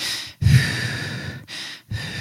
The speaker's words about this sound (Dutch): Dat dan als je langer uitademt dan inademt, dat dat een goed controlemiddel is.